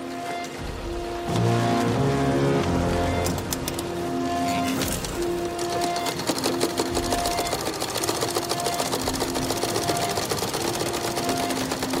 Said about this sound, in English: So you're going to hear the sewing machines in this clip and also the abrasive score that recurs throughout the film.